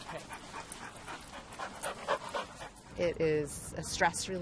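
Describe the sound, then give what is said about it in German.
A dog pants in quick, rhythmic breaths, then lets out a few high, whiny whimpers toward the end. “Und da scheint es nur ganz logisch, dass auch ihr Präsident auf den Hund kommt.”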